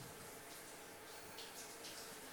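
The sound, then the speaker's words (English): A steady, continuous hiss of hot water pouring at full flow in a shower, fairly loud with no voices. “I am in there for so long, the hot water searing my skin, but nothing mars its perfect smoothness.”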